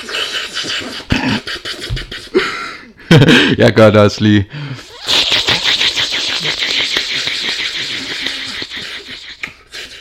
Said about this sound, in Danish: så, så trækker, du ligesom tager din læbe, og så skal du ligesom lave sådan en susen.